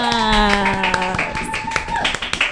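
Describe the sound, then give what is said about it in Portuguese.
Audience applause at a seminar event in Brazil that brings together autistic artists: a dense, steady patter of many hands clapping for a few seconds, mixed with a sustained, wavering tonal sound above it. “Uma salva de palmas!”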